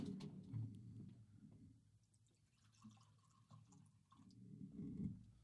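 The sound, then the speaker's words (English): Liquor pours into a glass in two quiet, gurgling spells of a heavier pour, with a softer lull between them. The sound is fairly faint, and nobody speaks. “definitely gonna give it a little bit heavier of a pour there.”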